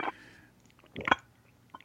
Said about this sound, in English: Oh god, he's chugging it.